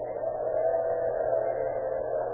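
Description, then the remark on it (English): An electric drill whines steadily and without a break for the whole moment in a small office at 2:30 in the morning, a sustained, fairly loud tone with a slight wavering and no voices over it. “In a small office located in the Sun Mercantile Company at 616 South 7th Avenue, two men converse in low tones, listen to the high whine of an electric drill.”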